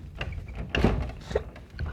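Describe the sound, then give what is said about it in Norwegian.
A door scrapes and thumps as it is shoved hard, a heavy jolt mid-way followed by smaller knocks and rattles, with no talking. “Helvetes dør.”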